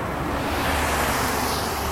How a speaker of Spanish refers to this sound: Van a escuchar carros pasando, son las 6 de la mañana de un día cualquiera nos levantamos a caminar.